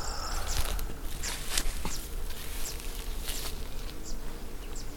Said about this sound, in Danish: bierne flyver ind og ud af de små pelsede dolmer i træet over mig.